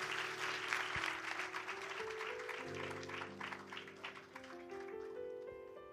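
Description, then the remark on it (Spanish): A church audience claps loudly and continuously, a dense wash of applause that eases slightly toward the end, with sustained keyboard chords ringing underneath. “Vamos a darle un aplauso bien fuerte, Señor.”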